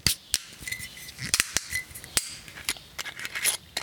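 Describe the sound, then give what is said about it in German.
A screw cap on a bottle of 2020 Riesling Spätlese halbtrocken wine is twisted open, producing a quick series of sharp metallic clicks and crackles as the seal breaks, with no talking. “Und heute klingt das wie wenn man eine Flasche Mineralwasser öffnet. Nun, nur die Kohlensäure fehlt.”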